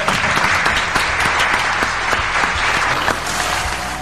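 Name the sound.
applause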